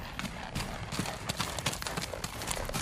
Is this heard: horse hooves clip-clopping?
yes